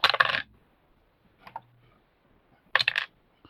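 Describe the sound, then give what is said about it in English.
Two bursts of dice clattering and tumbling across a hard surface as damage is rolled in a game, separated by a quieter single click, fairly loud with no talking. “So you can uh, roll your damage Ooh.”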